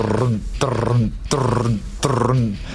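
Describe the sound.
A voice imitates a heavy metal guitar riff: three loud, gritty, growling chugs in a steady rhythm, each starting with a sharp attack, with nothing else heard.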